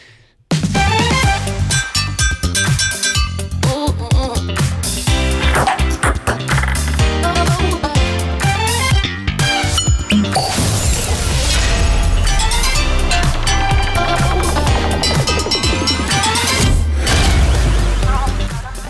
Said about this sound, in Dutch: En het leuke is dus, allerlei alledaagse voorwerpen zijn dus gebruikt in de tune. Dus er zitten ook pannen, pingpongballetjes, het ontkurken van een fles, een boor of een drill, weet ik veel wat, zit er ook in.